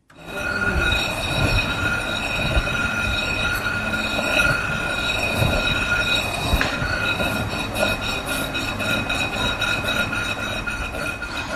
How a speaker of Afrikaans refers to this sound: sy vat daai stuk renosterboring en dan maal sy dit op daardie grove bodem in sirkelbewegings vir so 45 minute